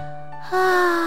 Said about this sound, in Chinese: 兔妈妈打了个大大的哈欠。